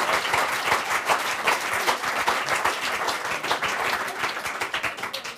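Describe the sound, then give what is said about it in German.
Many people applauding steadily, a dense wash of many hands clapping at once, fairly loud, sustained for several seconds without pause. “Da kann man dir mal kurz äh, 20 Sekunden hier gönnen und einen großen Applaus”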